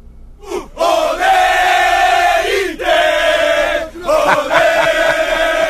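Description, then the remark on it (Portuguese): A large crowd of Internacional football fans chants a name in loud, drawn-out unison phrases, the chant rising and repeating about three times with brief breaths between, filling the space with massed voices. “um recado da torcida colorada para o Rodrigo Adams”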